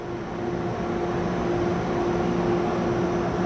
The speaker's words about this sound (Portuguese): Estava calor e deu para ouvir aí. O ar-condicionado fazia uma barulheira e eles mal davam conta.